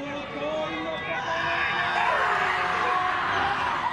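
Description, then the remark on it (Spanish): A group of male voices chants a New Zealand haka ritual in loud, forceful unison, with harsh shouted syllables over a dense crowd roar that keeps building for the whole stretch. “¿Qué te pasa cuando escuchás, por ejemplo, este sonido, este ritual que es el jaca de Nueva Zelanda?”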